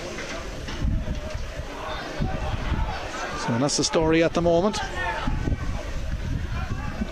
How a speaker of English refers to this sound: We've another heavy squally shower about to descend here in Netwatch Cullen Park. The wind is picking up as well.